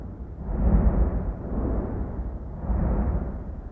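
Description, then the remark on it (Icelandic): Deep, rumbling blasts of the Heimaey volcanic eruption in the Westman Islands, which began on 23 January 1973, roll in three broad swells, each boom swelling and fading into a continuous low roar with a reverberant, echoing tail. No voices are heard. “Þarna heyrum við í heimaegargósinu sem að hófst aðfaran á 20. og 3. janúar 1973 og hvernig öflugar hljóðbylgjurnar bergmála í heimagleti.”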